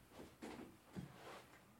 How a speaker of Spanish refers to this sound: Voy a cerrar la puerta. No sé por qué no cerré la puerta.